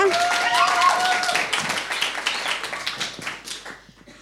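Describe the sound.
A crowd claps steadily for a performer's playing, a dense patter of many hands that stays fairly loud before gradually thinning out toward the end, with a brief tonal voice-like sound early on.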